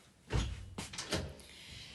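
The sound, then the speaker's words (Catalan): A classroom door opens with a heavy thump followed by a few quick rattling, scraping knocks, fairly loud, then a faint lingering rustle. “Passejava preocupada pel passeig fins que va arribar a la seva classe i va obrir la porta.”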